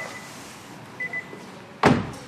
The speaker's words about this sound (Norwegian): Da lukker vi døra. Vi lukker døra.